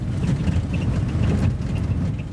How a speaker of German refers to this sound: Jetzt, mitten in der Nacht, arbeitet sich das alte Auto mit Allradantrieb auf holprigen Wegen immer tiefer in die Wälder hinein. Draußen regnet es in Strömen.